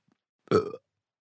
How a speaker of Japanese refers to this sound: 面白い音だねパパはこの音どうやって出してるの今日はとても暑かったから家に帰ってきてすぐソーダを一気に飲んだからかなそれからゲップが止まらなくて